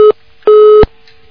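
A telephone busy tone after a dropped call: steady, mid-pitched electronic beeps in a regular on-off rhythm, one short burst then a longer one, loud and clear with no voices.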